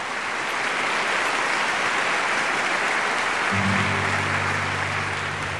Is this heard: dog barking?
no